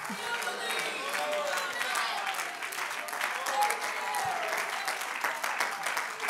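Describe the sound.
A church audience claps steadily in dense, continuous applause, with scattered shouts of "I still believe" and raised voices mixed in throughout, loud and sustained for the whole stretch.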